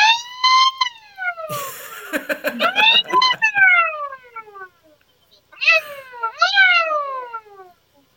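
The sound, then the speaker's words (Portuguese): A comical siren from a small siren gadget, played as a joke about the Botafogo football club, wails in long, high, sliding tones that fall in pitch, briefly broken by a noisy rattling burst, then stops and returns for a second, shorter wail. “Mas essa, essa sirene, olha só, a sirene de que o, o caneco está indo embora.”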